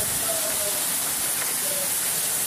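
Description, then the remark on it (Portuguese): Heavy rain pours down in a steady, dense hiss, an unbroken wash of noise that fills the whole clip without pauses, heard from inside a house. “Aqui um outro agora, de dentro Mostrando da casa. A chuva mo... forte.”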